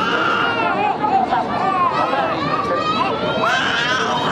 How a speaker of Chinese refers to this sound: 有的宝宝哭得声嘶力竭，也有的宝宝需要花点时间。这个在东京浅草寺举办名为“宝宝相扑”的比赛，比赛规则很简单，就是两个宝宝在相扑台上，谁先放声大哭，谁就赢。